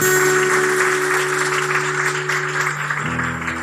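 Steady crowd applause for a person's bravery fills the whole stretch, a dense, even patter of many hands clapping at once, with a sustained keyboard-like drone held underneath that shifts pitch near the end.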